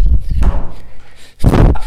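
Someone tumbles off a chair: a few heavy low thumps, a short pause, then a louder clattering crash as the body and chair hit the floor.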